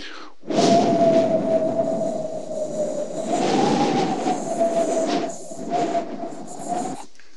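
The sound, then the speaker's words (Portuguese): A steady, hollow whistle of wind rushing through the narrow gap of a half-open window, holding one wavering pitch over a loud airy roar for several seconds, swelling slightly midway before dropping off abruptly. “Deus se revela a Elias através do simples assobio do vento. Sabe quando você deixa a janela entreaberta? Aquele cício, aquele barulho.”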